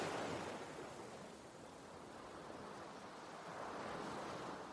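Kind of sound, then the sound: nature, sea waves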